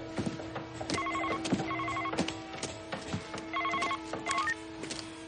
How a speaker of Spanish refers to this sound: El teléfono de Kincaid suena y ella contesta.